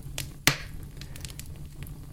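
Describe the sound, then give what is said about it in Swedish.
A crackling fire pops and snaps at irregular intervals, with one sharp, louder crack near the start among softer ticks over a low, steady rumble. No one speaks. “Lyssna till eldens sprakande ljud.”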